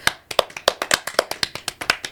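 A quick burst of hand clapping as the hosts clap for themselves: around fifteen sharp, crisp claps in just over two seconds, in a fast, fairly even rhythm, with no talking.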